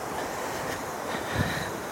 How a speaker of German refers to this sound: wenn ihr sie hört, äh, ein Fluss, der durch meinen Heimatort führt.